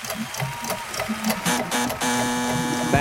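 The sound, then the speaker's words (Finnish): A quiz buzzer goes off: after a couple of seconds of rapid mechanical clicking and rattling, a loud, steady, reedy buzz tone sounds continuously for about a second until the end. “pääsin painamaan Aivan. tööttiä.”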